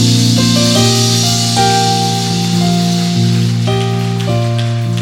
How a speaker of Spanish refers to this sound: Alguien déle un aplauso al rey.